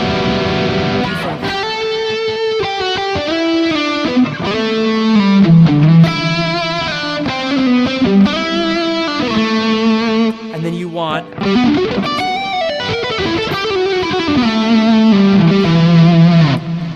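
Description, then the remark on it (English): An electric guitar with a distorted, effects-laden tone plays a continuous E minor arpeggio, notes flowing one into the next in a steady, ringing line at a strong level with no talking. “some sort of an arpeggio kind of sound.”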